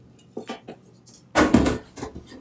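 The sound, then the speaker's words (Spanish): Metal clanks and rattles as an old metal tin of mantecadas from the La Mallorquina factory in Astorga, decorated with a maragato figure, is taken down and handled: a few light taps, then a louder burst of scraping and clattering around the middle, settling into softer knocks. “ahí tienes una lata de mantecadas antiguas. Mira si la puedes quitar.”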